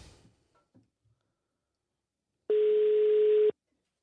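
A single one-second burst of a steady telephone ringback tone, loud and clear, after a few faint clicks and near silence as the call is placed.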